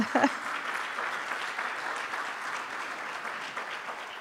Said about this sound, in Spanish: Que de paso les digo que el sábado 28 de mayo es el cumpleaños de mi esposo. Así que vamos a darle un aplauso.